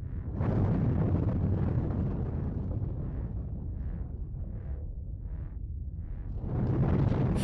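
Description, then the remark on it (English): A continuous deep roar of an array of vents on a planet's surface around a borer, spewing hot yellow steam and throwing up rocks of varying sizes, loud at the start and end, with a series of rhythmic hissing puffs in the quieter middle stretch. No voices. “It spewed hot yellow steam and threw up rocks of varying sizes.”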